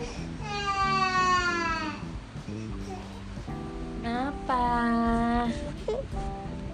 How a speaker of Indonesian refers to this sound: suara bayi